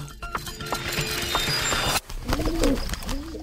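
Pigeons coo in soft, throaty bursts, their low rolling calls repeating over a busy outdoor background with scattered clicks and shuffling.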